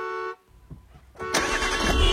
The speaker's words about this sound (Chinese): 而前车已经开出去很远了，后车在不耐烦地按着喇叭，督促着黄潇赶快行驶。